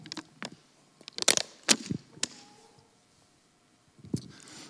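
Someone takes a sip from a plastic water bottle: sharp crinkling crackles of the plastic, a few louder pops, then a quieter stretch and a final crackle, with no talking.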